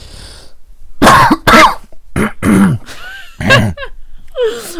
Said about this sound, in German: Ein dreckiger Husten.